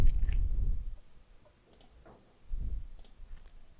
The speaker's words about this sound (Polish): Dam Wam pytanie, żebyście mogli odpowiedzieć zamiast mnie. E, już klikam, klikam.